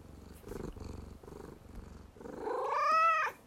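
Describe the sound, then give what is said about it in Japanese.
A cat named Maf, sitting on a lap, purrs in a steady, rhythmic low rumble of pulses about twice a second, then a brief, loud, rising tonal cry with bright harmonics cuts in before stopping abruptly. “珍しいマフどうしたのお膝に乗ってきましたマフがどうしたんゴロゴロ言うてますね あちょっとねほら始まりの始まりのにゃんを言わないとリアルにゃん言ってくれるそういう感じじゃなさそうだな”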